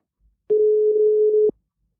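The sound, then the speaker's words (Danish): A single steady telephone tone sounds for about one second, loud and clear, the hum of a call being placed to the chairman of Herskild Borgerforening, with silence before and after and no voices. “Skal vi ikke ringe til Allan? Jo, vi prøver.”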